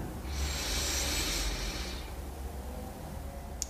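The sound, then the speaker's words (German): A single long, airy deep breath drawn in through the nose during a guided meditation, steady for about two seconds, then fading into quiet with no talking. “Wir nehmen zusammen den ersten tiefen Atemzug und atmen ein.”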